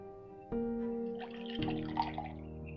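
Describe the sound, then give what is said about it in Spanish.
Water pours steadily into a glass, a bright, ringing gurgle whose pitch climbs in small steps as it fills, with light splashing near the end and no voices. “Dime que eso es agua de que está sirviendo para que eh, tomes.”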